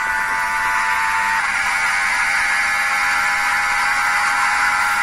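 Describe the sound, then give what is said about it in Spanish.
A loud, high-pitched racing car engine screams steadily for several seconds as the car takes a curve at high speed on a circuit skirting the old town's castle, its harsh buzzing whine swelling slightly midway with no pause and no voices. “Es tremendo que un auto sea sometido en curva a esta velocidad bordeando el castillo de la ciudad vieja y otra vez la recta principal.”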